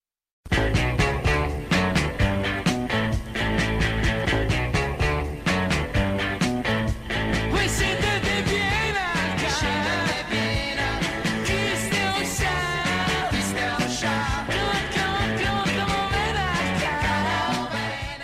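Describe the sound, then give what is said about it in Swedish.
A crowd of Neapolitans in Naples, said to number 150,000 and gathered to glimpse the Beatles arriving in a white limousine, sings a lively Neapolitan greeting song, loud and continuous over full musical backing, with the melody swelling and growing more animated partway through. “det de sjunger egentligen är ju Kiss teocha Alltså på napolitanska, det här är mitt andetag.”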